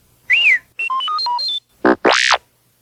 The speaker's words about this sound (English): You will know it is time to turn the page when you hear R2D2 beep, like this.